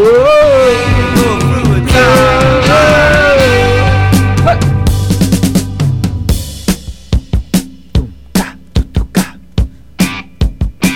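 A loud, raw rock song with dense, ringing guitar-like chords and a wavering melody gives way to sharp, punchy drum hits pounding out a steady, driving beat. No one speaks.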